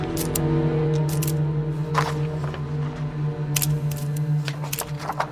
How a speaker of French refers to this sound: Kuklinski prend alors le risque de sortir de sa poche son briquet appareil photo et il commence à photographier le document